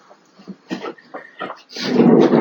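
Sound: dog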